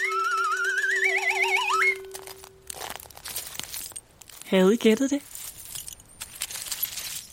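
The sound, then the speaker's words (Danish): After a short wavering musical sting, mussel shells rattle and clink together in a loose, irregular clatter, with a voice briefly speaking partway through. “Det er lyden af muslingeskaller.”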